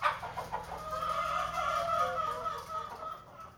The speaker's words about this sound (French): Ici, on a environ 150 poules avec le coq Georges.